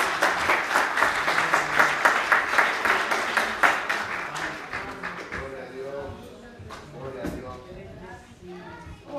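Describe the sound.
An audience breaks into loud, dense applause that holds steady for several seconds, then thins out and fades as scattered voices begin talking.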